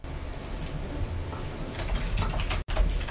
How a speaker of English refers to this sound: Typing in the chat.